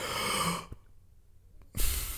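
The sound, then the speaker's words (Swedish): A person imitates a deep, airy breath drawn in through the mouth, fairly loud, showing how someone draws in a lot of air through the mouth. A brief silence follows, then another rushing breath begins. “Och så försökte jag också att han skulle göra sådär att han faktiskt drar in mycket luft genom munnen så här.”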